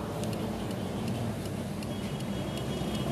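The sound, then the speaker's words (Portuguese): Steady road noise from inside a car pulling out of a gas station after refueling into heavy traffic, a continuous low rumble of engine and traffic with faint periodic ticking, like a turn signal, running throughout at moderate level. “Olha só, esse trânsito tá demais.”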